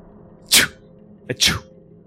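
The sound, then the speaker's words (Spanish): A voice imitates two sneezes of a man allergic to trees: a sharp, hissy burst, then a brief catch of breath and a second loud, airy sneeze. Prominent, with no talking. “Cae el sol y preparamos el fuego, comenzamos a cocinar los peces y este man comienza como que a estornudar.”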